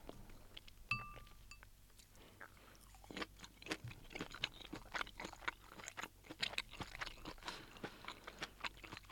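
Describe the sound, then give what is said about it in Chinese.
A light utensil clink rings out near the start. Steady moist chewing of a small cheese-and-butter-flavoured sausage follows, with soft, irregular mouth clicks and crunches repeating throughout and no talking. “我们最后来感受一下小香肠。”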